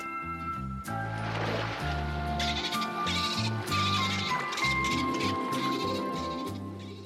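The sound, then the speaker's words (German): A person imitates dolphin chatter for a children's TV series in which a dolphin plays the lead role: rapid, warbling squeaks and bleating tones with bursts of clicky buzzing, loud, continuing unbroken for several seconds with no talking. “Oder wie hört sich ein Delfin an, der die Hauptrolle in einer Kinderserie spielt?”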